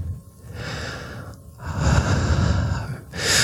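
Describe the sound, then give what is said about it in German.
Heavy, deep ASMR breaths blown into a microphone, a long rushing exhale followed by another loud breath after a brief pause, breathy and intimate with no talking. “Wir atmen erstmal ganz reich”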